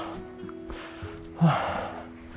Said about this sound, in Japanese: あ息切れ打っちゃいますわ息切れ